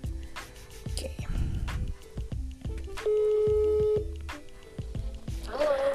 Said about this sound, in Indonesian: Nah, uh, gue telepon dulu ya.